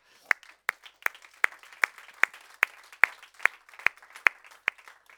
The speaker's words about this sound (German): Aber er war super letzte Woche, oder? Geben wir einen Applaus.